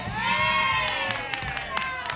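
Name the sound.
studio audience applauding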